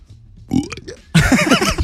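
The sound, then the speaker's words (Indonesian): An exaggerated fake burp voiced by a person, like the put-on burps of middle-aged men in Indonesia: a short croak, then a louder, longer, gravelly belch, with no one speaking. “kita akan bicarakan hari ini khususnya di Indonesia ya iya dan misteri kali ini adalah soal bapak bapak bapak yang bertahak dan dibuat-buat gitu.”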